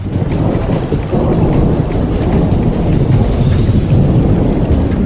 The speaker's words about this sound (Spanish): Luego de una tremenda ola de calor, la Ciudad de México vivió una tarde-noche de intensa tormenta que las autoridades calificaron de histórica por una fuerte granizada. El meteoro provocó el desplome de una estructura en el Templo Mayor.